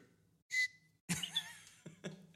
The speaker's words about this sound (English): I love, I love that little whistle, bro.